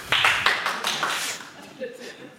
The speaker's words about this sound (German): Ähm, ich wollte jetzt keinen Applaus unterdrücken, Entschuldigung.